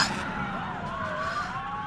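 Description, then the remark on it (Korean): A police car siren wails in a steady rising and falling tone over the broad rumble of road traffic as the police car arrives on the road in front of a school, near a collapsed building, with cars honking; continuous throughout. “무너진 건물 근처에서 차들이 경적을 울리고 사람들이 웅성거렸다. 잠시 후 경찰차가 도착했다.”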